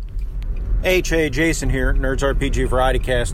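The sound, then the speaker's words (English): A man talks over a steady low rumble of road noise inside a moving car, the droning hum running continuously under his voice from start to finish. “in the car. Apologize about the noise.”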